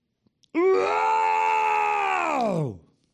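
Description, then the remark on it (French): A man imitates a lion's roar with one loud, sustained, throaty growl lasting about two seconds, held steady and then sliding down in pitch as it fades, with no other talking. “Mais euh, là, j'ai censé imiter un lion.”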